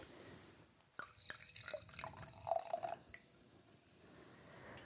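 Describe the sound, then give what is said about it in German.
Seko sparkling wine is poured from a just-opened bottle into a glass in a short burst of splashing and gurgling lasting about two seconds, opening with a couple of sharp clicks and fading to a faint fizz. “Jetzt öffne ich gerade mal die Flasche und schenke einen Schluck ein.”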